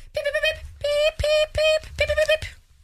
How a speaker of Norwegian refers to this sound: Så lyd nummer én er enten eh, ringetone eller morsesignaler, eh, mens lyd to er ingenting.